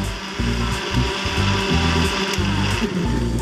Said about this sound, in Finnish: niinpä ostat laktoositonta ja rasvatonta jukurttia lähikaupasta ja herätät kumppanisi joka aamu blenderin surinaan, Pakasteherukat ja äidinpoimimat poimimat vademmat söytyvät piimän kanssa terveelliseksi vitamiinipommiksi.